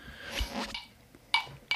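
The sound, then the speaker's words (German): Two bright glass clinks ring out close together near the end as glasses are clinked in a toast, each a short sharp chime with a brief ringing tail, after a stretch of soft rustling and handling noise. “Ja, Prost, ne? Auf, mein Lieber.”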